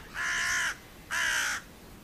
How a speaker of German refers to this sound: Im Vergleich mal noch eine Nebelkrähe. Die machen nämlich eher ein Kra.